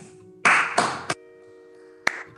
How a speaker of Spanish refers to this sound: ¡Aplaudan, hijos de puta! Yo te estoy aplaudiendo